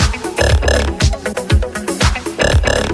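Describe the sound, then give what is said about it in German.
A vintage 1979 Casio electronic keyboard plays its 'Frog' preset, a croaky, burp-like synthetic tone repeated in a rapid rhythmic pattern of short low notes with bright buzzy overtones, loud. “Und ich präsentiere jetzt exklusiv diesen Original-Sound. Der heißt hier Frog, also Frosch.”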